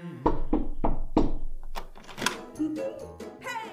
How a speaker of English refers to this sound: And by that afternoon, by accident or design, he found himself in front of his nephew's house. He passed the door a dozen times before he had the courage to go up and knock.